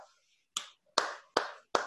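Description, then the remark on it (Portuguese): Four loud, sharp hand claps in a steady, evenly spaced rhythm, each with a short bright ring, following a brief trailing bit of voice at the start. “Palmas para você.”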